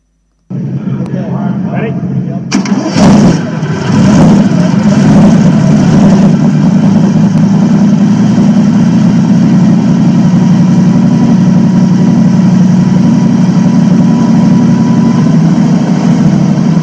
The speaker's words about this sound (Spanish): Como veis, el sonido del Alfa Romeo es un sonido mucho más tradicional, ¿no? Un coche de eso, de super de los años 30.